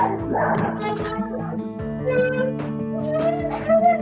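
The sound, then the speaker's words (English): A dog barks and yelps, its cries running together for a few seconds in a tense, high-pitched whining stretch that rises toward the end. “We've got dogs, babies, we got everything.”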